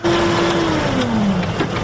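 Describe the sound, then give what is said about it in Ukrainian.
A heavy tractor engine drones steadily and loudly, its low hum dipping slightly in pitch as it keeps running while the tractor plants parsley in a fully automated way on a field in the Czech Republic, its route watched on monitors. No voices are heard. “Головне завдання Івана стежити за моніторами, аби трактор не збився з маршруту.”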